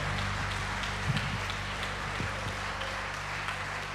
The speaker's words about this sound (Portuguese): Você pode aplaudir o Senhor.